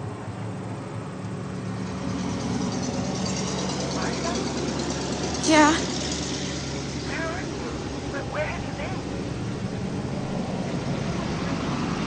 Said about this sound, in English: and then kind of like a jalopy truck goes by that obscures half a, half a sentence of the sister.